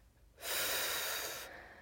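A single forceful, breathy rush of air lasting about a second, loud, a hard exhale blown out sharply, with quiet before and after and no talking.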